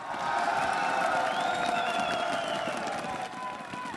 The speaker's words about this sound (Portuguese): Sei que vocês já bateram bastante palma, mas esses caras merecem. Quatro dias de batalha, muito jogo bacana. Queria para os três times, PEN, VTI Ignis e VTI Inox, muito barulho e muita palma. Vamos lá!